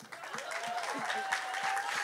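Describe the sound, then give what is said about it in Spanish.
An audience applauds a couple with steady, dense clapping at a moderate level for about two seconds, with a faint whistle-like tone running through it. “Solo para darle un aplauso a la pareja.”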